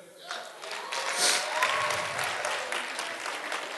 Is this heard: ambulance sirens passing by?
no